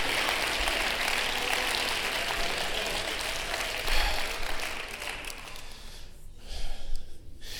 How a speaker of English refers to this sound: Somebody clap your hands under the Lord right now. Hallelujah.